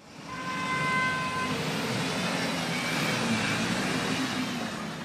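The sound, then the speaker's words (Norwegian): A steady wash of slow-moving street traffic on Prasa General Osorio in Ipanema, Brazil, with engines rumbling and a car horn sounding early on, the noise continuous and fairly loud, like congested city traffic crawling past. “Trafikken går tregt på Prasa General Osorio, i hjertet av den rike bydelen Ipanema.”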